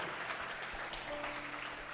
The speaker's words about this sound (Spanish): ¿Cuántos le dan un aplauso fuerte al Señor conmigo?